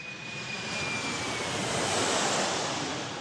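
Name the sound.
airplane taking off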